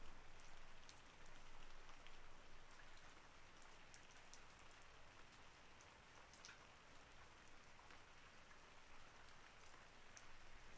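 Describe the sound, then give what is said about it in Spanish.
Steady rain falls with a dense hiss, individual drops pattering and ticking sharply against a surface throughout, constant, with no voices. “O quizás también los detalles en el fondo, en esta lluvia y en las gotas que caen.”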